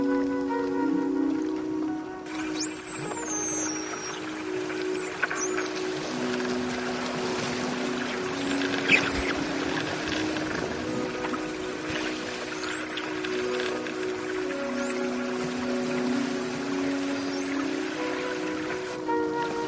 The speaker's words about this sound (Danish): tidlig morgen på Svendborg Havn. Måske så tidligt, at delfinen ikke engang er stået op endnu.